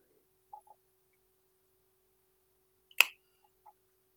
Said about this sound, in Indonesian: ini suara gue ngunyah masuk gak sih? Enggak. Masuk dari tadi juga masuk. Oh, sorry, sorry, sorry.